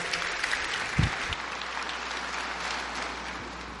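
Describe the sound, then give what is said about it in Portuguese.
An audience applauds steadily to welcome a speaker, a dense wash of many hands clapping at an even level for a few seconds, with a brief low thump near the start. “Vamos receber com uma salva de palmas”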